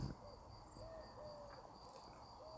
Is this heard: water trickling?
no